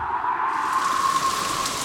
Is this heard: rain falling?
yes